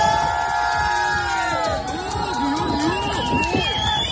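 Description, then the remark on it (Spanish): A group on land at the port of Barbate, Cádiz, Spain, cheers a drug-smuggling speedboat as it rams and runs over the Guardia Civil agents' boat: many overlapping voices rising and falling continuously over a steady motor-like drone, with no clear individual words. “Este es el momento en el que la lancha se abalanza contra la de los agentes y les pasa por encima mientras un grupo vitorea desde tierra a la narcolancha.”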